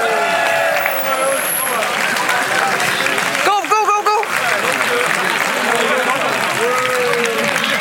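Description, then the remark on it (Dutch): Steady, dense audience applause fills the whole stretch at an even loudness, while a voice calls out the same word several times over it and a brief burst of shouting rises midway. “applaus hier voor deze mannen.”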